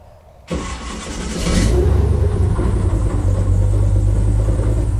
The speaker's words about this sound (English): Die Airbots machen wahnsinnig viel Spaß. Die fahren relativ zügig und die gehen immer so triftend in die Kurven rein. Die können ja nicht direkt lenken.